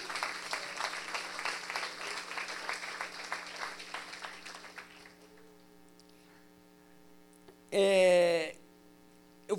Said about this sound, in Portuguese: Será que você pode aplaudir Jesus só para eu beber uma água?